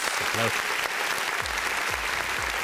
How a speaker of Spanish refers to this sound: Bueno, pues aplausos